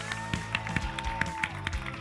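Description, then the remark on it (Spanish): Audience applause welcoming the national director of Senatur, in an even, rhythmic beat, sharp claps landing about four or five times a second over a steady humming musical backdrop, moderately loud and with no one speaking. “Con este aplauso, Andrea, bienvenida.”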